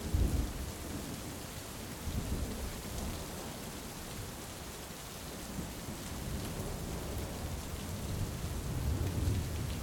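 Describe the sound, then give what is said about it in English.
Steady, dense rain pours down throughout, with deep low rumbles of thunder rolling underneath, swelling at the start and again near the end. No voices, just the continuous storm. “Guided meditation and thunderstorm rain sounds”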